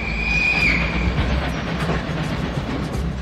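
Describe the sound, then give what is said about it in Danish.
Shunting trains in the morning, heard from a hotel lying between Banegården and Kongens Have, rumble steadily while a thin, high metallic squeal rises and holds for about a second, followed by scattered wheel clanks and creaks over the continuous low roar. “Fra det andet, der hører vi rangertogene om morgenen, som, øh, som viner og som holder os vågne og sådan noget.”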